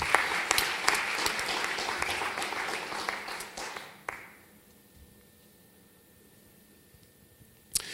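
A burst of audience applause, dense and crackling with many hands clapping, lasting about four seconds before stopping abruptly, leaving near silence and one faint sharp tap at the end.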